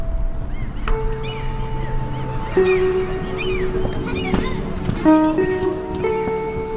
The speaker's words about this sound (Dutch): Boven ons krijsen de meeuwen. Hun cirkels doen me eraan herinneren dat je kan loslaten en vasthouden tegelijkertijd.